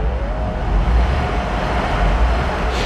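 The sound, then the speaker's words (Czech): A tram rumbles past on a track about 20 metres down a slope below a meadow, a steady low roar with a faint metallic whine running through it, holding a constant level throughout with no voices. “Takže jedeli tramvaj, ta tramvajová trak je takových taky 20 metrů možná ze svahu dolů pod tou loukou, tak já ji slyším, ale já jsem u té tramvaje.”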